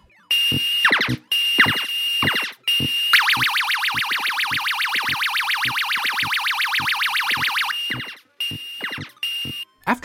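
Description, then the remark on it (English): Space Invaders arcade game sound effects at a roller skating rink: loud electronic bleeps and quick falling zaps, with a long rapid warbling siren-like tone through the middle, then more short bursts. No one speaks. “That is when I heard something above their excited babble.”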